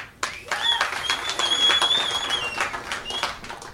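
An audience at an event in Aspen breaks into applause to show opposition to work requirements in Medicaid: a dense, steady patter of many hands clapping that starts abruptly and carries on for several seconds at an even level, with a faint high whistle-like tone running through it.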